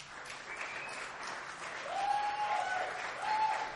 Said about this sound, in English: If you think horny werewolf is the erotic novel, applaud. If you think it's masochistic monster mama, applaud.